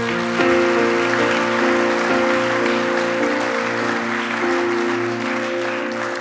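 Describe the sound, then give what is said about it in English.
A church audience applauds steadily during a morning service, a dense wash of clapping hands that holds for several seconds, with a sustained organ-like musical tone humming underneath. “If you love Jesus, let me hear your hands this morning.”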